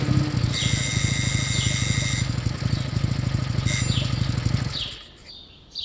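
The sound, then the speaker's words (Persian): A motorcycle engine idles in a residential alley with a steady low rumble, then cuts off outside a house near the end, leaving quiet. Birds chirp in the background throughout. “روزایی بودن که شما میدونستین که وقتی صدای موتورسیکلت از توی کوچه میاد ممکنی موتورسیکلت صداش در خونه شما قطع بشه و کسی که سوار موتور زنگ شما رو بزنه”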